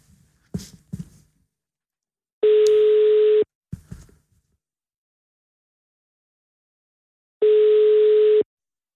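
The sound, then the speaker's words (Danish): An outgoing call's ringing tone, on a call to Nasser Carter: two steady, one-second beeps about five seconds apart, clear, with a few short clicks and handling knocks before and between them. “Nej, er det ham, du ringer til nu?”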